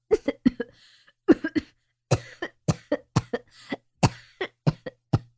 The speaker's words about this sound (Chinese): 被呛得连连咳嗽